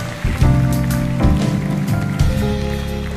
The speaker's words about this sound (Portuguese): Uma salva de palmas para vocês mesmo. Gente elegante, cheia de classe.